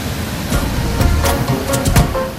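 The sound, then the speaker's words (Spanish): Sea waves wash steadily onto the beach at Chacrimar, a loud, continuous hiss of surf with a few brief swells of breaking water and no voices. “Si uno va a las playas, como estamos ahorita aquí en Chacrimar, va a ver que el mar está, digamos, entre comillas, superficialmente en condiciones normales, pero el problema está en el fondo marino.”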